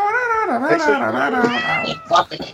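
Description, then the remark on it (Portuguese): A cat meows in a long, wavering, drawn-out yowl that rises and falls in pitch for a couple of seconds, ending in a few shorter cries. “até o gato Tinha falar o gato.”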